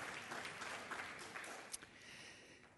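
Steady applause from a crowd, a dense wash of many hands clapping at a fairly even level throughout, with one sharper clap standing out briefly near the middle.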